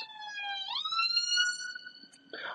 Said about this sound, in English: Um, and I got to sort of present that as a as an argument to the senior leadership team, which excuse the sirens.